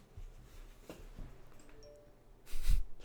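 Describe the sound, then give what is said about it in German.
A sudden loud electronic phone notification sound bursts out near the end, short and harsh, after a stretch of quiet low background noise with no talking. “Es gab gerade eine richtig komische Benachrichtigung von mir und es war richtig ah, laut.”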